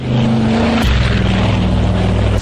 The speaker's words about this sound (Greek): Μας ζάλισε αυτό σήμερα. Αεροπλάνο, καλή. Αεροπλάνο.